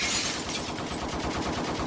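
A rapid, sustained burst of gunfire, dense and loud, with shots rattling in quick succession for about two seconds and no voices, as a 17-year-old sitting outside his home in Las Huertas is shot at.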